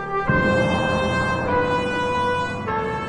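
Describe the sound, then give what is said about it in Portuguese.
Sustained brassy horn blasts blown by seven priests walking ahead of the ark, with rich harmonic tones, shifting pitch in a few steps over about three seconds, loud and continuous with no talking. “Durante esse tempo, as cornetas tocavam”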